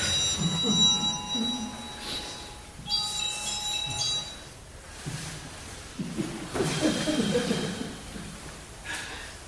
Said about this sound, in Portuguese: Esse aí, o, o alarme da hora do cala a boca, é isso?